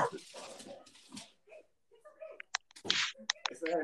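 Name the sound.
dog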